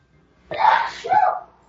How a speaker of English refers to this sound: Bless you again. No worries about that. That's just that's atmosphere.